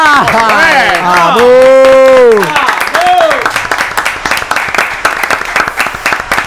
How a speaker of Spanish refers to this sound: ¡Aplauso radial!